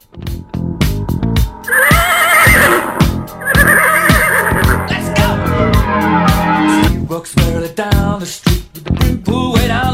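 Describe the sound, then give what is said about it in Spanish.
A horse neighs loudly, two long quavering whinnies one after the other, over a busy background of clattering, rhythmic noise that continues after the neighing fades. “Pasame a buscar en caballo, vamos.”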